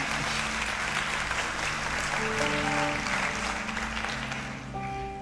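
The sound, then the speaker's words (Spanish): An audience claps steadily for several seconds as applause to God, a dense wash of clapping while sustained organ or keyboard tones play underneath, the clapping thinning slightly toward the end. “Deme un fuerte amén o un aplauso al Dios que quiere darte su bondad.”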